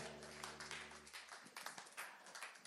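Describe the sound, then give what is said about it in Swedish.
A crowd at a church service applauds with a dense, steady patter of many hands clapping, fairly quiet overall. A low sustained hum sits underneath for the first second before fading out. “Ja, ni, ni, ni, det är inga sådana här halvavmätta applåder utan man känner sig verkligen välkommen här.”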